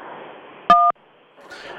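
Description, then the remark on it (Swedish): A single short telephone keypad tone, a clean two-note electronic beep lasting a fraction of a second, pressed once on a call to Bandit's automated answering machine, amid a low hiss of line noise. “Är du man? Tryck 1. Är du kvinna? Tryck 6.”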